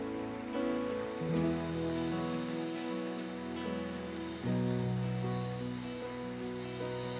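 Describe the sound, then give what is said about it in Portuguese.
An audience in a church claps steadily for several seconds after a prayer, a dense, even wash of applause over sustained keyboard chords that shift partway through. No one speaks. “Agora dá aquele aplauso bem crente.”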